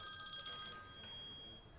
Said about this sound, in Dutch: Oh, dan gaat een telefoon.